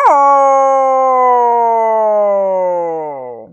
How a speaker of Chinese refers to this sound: 这匹狼对她可不太友好，对着她嗷嗷叫起来。